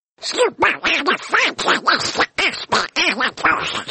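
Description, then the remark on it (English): A person does a raspy, quacking Donald Duck voice, trying to say the word supercalifragilisticexpialidocious as a long string of rapid, buzzy syllables in choppy bursts for about four seconds, loud. “In Donald Duck, I want you to say supercalifragilisticexpialidocious, okay?”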